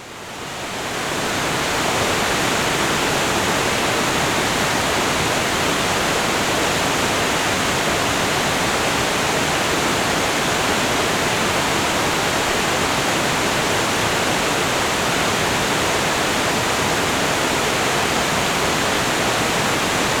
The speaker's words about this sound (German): Am anderen Ende des Tales stürzt ein eindrucksvoller Wasserfall in Kaskaden über die Felsen in den Fluss.